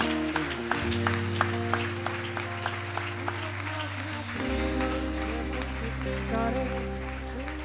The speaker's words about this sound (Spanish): En el nombre, dele el aplauso. Dele el aplauso. Dele el aplauso al Señor.